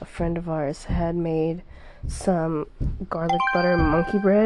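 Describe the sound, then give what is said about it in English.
A notification ringtone from the woman's own phone chimes near the end, with steady high electronic tones sounding beneath the woman, who keeps talking over it. “That was my phone, obviously. I didn't realize that notification was going on.”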